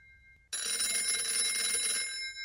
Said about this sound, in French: Trois jours avant Noël, le téléphone résonne entre les vitrines du musée d'East London, une bourgade côtière d'Afrique du Sud, à plus de 1000 km de la capitale, Pretoria.